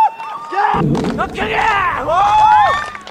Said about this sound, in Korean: 우상혁은 올해 실외 경기 세계 최고 기록보다 2cm 높인 2m 32에 도전합니다. 우상혁이 첫 번째 시기만에 성공하자 환호성이 터져 나옵니다.